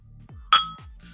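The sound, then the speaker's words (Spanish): A single bright clink of glasses touching in a tequila toast, loud and ringing briefly before fading, with a low steady hum in the background and no voices. “Ay, cabrón, este, ¿sal, saludita o qué?”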